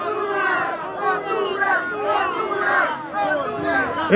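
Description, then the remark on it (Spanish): A large crowd of migrants at a demonstration shouts a chant spelling out "Honduras" together in loud, rhythmic bursts of massed voices, sustained, with the collective yelling rising and falling in waves. “Dame una U. Dame una R. Dame una A. Dame una S. ¿Qué dice? ¿Qué dice? Más fuerte. Tres veces.”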